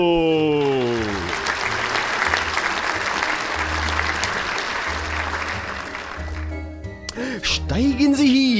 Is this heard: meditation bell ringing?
no